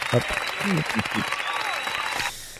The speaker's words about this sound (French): Tiens, je t'applaudis. Tiens, allez, vas-y.